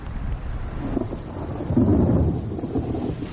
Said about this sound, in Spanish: Más tarde cae una gran tormenta y entran en un bar para refugiarse.